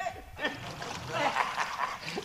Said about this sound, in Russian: лодку на воду. Давай.